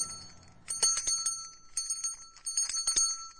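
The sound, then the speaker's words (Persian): A small grave bell, tied by a string to a buried person's finger, jingles in quick, irregular bursts of bright, high-pitched ringing, shaken several times with brief pauses between. No voices are heard. “این نخ به زنگوله در بالای سر قبر وصل می شده تا اگه مرده یک بار زنده شد زنگوله رو تکون بده که بیارنش بیرون”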